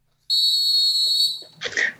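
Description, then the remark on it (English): A sharp, shrill whistle blast sustained for about a second, loud, followed by a brief burst of muffled noise. “Blow the blow the whistle.”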